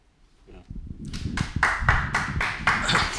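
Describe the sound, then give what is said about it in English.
Audience applause swells in after a quiet start, settling into steady, rhythmic clapping at roughly three beats per second that stays loud until the end. “yes that's worth applauding”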